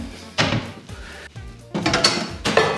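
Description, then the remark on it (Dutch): Clattering kitchen sounds as a frying pan is pulled from a kitchen cupboard to fry food in: a sharp bang of a door or drawer, metallic scraping, then more knocks and clanks, with no talking. “We hebben zometeen een koekenpan nodig inderdaad voor, eh, voor deze aan te bakken.”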